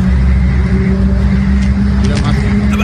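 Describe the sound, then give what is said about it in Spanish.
A car engine rumbles loudly and steadily, a constant low droning hum that neither rises nor fades, with indistinct voices faintly mixed underneath. “Cuando tú estás en un carro, como dijiste ahorita, …, te das cuenta que alguien viene”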